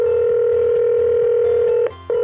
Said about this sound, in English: The phone began to ring.